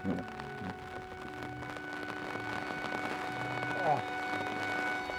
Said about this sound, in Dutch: Het begint nu toch harder te regenen.